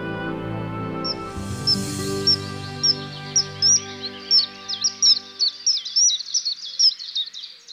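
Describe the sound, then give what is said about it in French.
Shrill, thin whistles of a common kingfisher in Paris, repeated in short piercing bursts that grow quicker and busier, first over a low steady hum that fades away, leaving the calls alone. “Aujourd'hui, le martin pêcheur d'Europe.”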